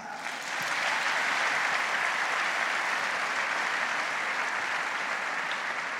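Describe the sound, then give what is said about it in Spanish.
An audience breaks into sustained applause, a dense, steady wash of many hands clapping at an even loudness for several seconds, with no voices standing out. “Vamos a dar un aplauso.”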